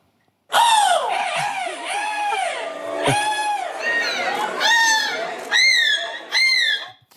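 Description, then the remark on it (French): A person loudly imitates a seagull at the 2022 world seagull-cry championship in Berg, in the Nord region, letting out a long run of shrill, wavering cries that rise and fall, ending with a few sharp squawks, without pause. “C'était hier à Berg, dans le Nord, le championnat du monde de cri de la mouette, championnat du monde. Et j'ai bien dit de cri de la mouette.”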